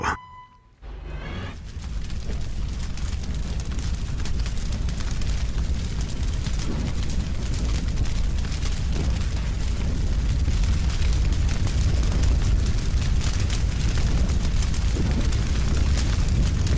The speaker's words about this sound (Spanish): Bueno, nada más oigo, escucho este, estos sonidos de, fuego y se me enchina la piel de, híjole, em, el... estado en el que están muchos de los bosques del mundo, ¿no?